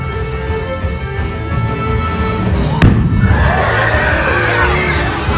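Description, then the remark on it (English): The second of several balloons, filled with hydrogen and a little oxygen, ignites with one sharp, sudden bang over a steady crowd murmur, and excited shouts and cheering from the crowd swell right afterward. “Balloon number two, hydrogen with a little bit of oxygen.”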